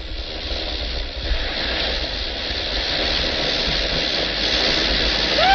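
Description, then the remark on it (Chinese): A steam locomotive approaches from far off outside the door in a film scene, releasing steam in a broad, continuous hiss over a low rumbling engine, the noise building slightly louder toward the end. No voices. “门外远远的开过来一辆机车，苏里和皮劳特开枪打死了屋里的两个便衣警察，拉着奥布伦趁着机车放气的功夫跳上机车开走了。”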